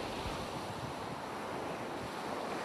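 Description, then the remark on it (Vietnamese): Steady roar of ocean waves and surf with gusty wind noise buffeting the microphone, continuous and loud throughout, no voices. “bè lên đênh trên biển nhiều ngày trời rồi trôi vào vùng biển sương muối”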